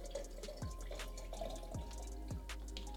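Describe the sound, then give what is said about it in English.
Ice-cold water pours into a glass in a steady, bubbling stream, punctuated by a few distinct plops and gurgles. No one speaks. “I just gotta get some more water.”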